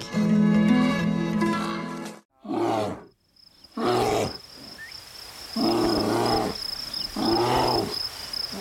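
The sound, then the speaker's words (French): A bear growls in a series of deep, rough, loud bursts with short pauses between them, while a thin high insect-like whine runs steadily underneath. “Les ours sont sortis de leur hibernation au TNO.”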